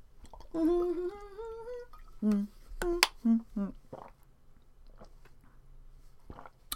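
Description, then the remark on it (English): Someone takes a drink of water: a brief throaty hum, then several quick gulps and swallows in an uneven rhythm, followed by faint mouth clicks and quiet breathing. No one speaks. “one second water break”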